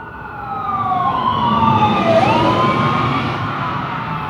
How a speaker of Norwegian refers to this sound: På vei hjem møter han en ambulanse i full utrykning på vei mot området der Kristoffer bor.